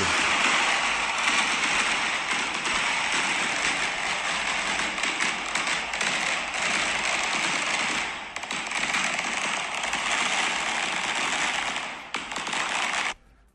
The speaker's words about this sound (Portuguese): Mas assim, só, só, só escuta aqui os fogos de artifício.